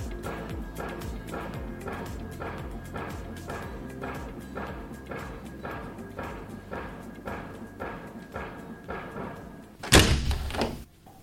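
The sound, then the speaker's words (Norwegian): A steady rhythmic pattern of soft knocks runs throughout, then the studio windows at Havnens Hus, Narvik harbour, are shut near the end with a single loud, heavy bang and brief rattle. No one speaks. “Da har vi eh, lukket igjen eh, vinduene eh, her i studio i Havnens Hus,”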